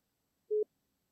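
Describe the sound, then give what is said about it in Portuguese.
A single short, steady mid-pitched beep of a phone call tone sounds once as an outgoing call is placed, clean and clear, with silence before and after and no voices. “Deixa eu ver se ela vai atender.”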